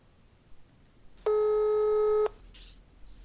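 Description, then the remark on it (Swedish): A single steady electronic telephone ringing tone, from a call to their translator Bosse, sounds for about a second, loud, with a clean harmonic buzz, then stops abruptly over a quiet background. “Kanske, jag vet inte om jag ska läsa mer text nu eller om det, om det ska vara så här att vi bara ringer vår översättare och, och vår allvetare Bosse.”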